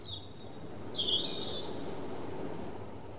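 A European robin sings at night in central Åbo, Finland, thin, high, trilling phrases in short bursts, fairly faint, over a steady low rumble of traffic from a busy street; no one speaks.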